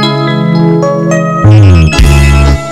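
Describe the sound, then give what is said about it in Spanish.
A loud, bright musical intro plays with layered synth-like tones and sustained harmonics, shifting into a denser, heavier section with deep bass midway. No one speaks over it. “¿Qué sientes cuando escuchas esta rola?”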